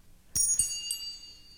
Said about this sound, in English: So she reached down and took a tiny silver bell off her foot. It made the most wonderful sound as she gave it to them.